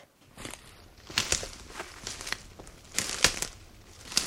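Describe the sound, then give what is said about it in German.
Crunchy footsteps on dry leaves and twigs in a forest, a steady walking pace with several crackling steps and no voices. “Hm, das sind so Schritte, ne? Schritte im, im Wald, kann man sagen.”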